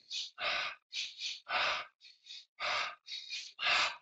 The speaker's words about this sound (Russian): Два раза вдох, один раз выдох.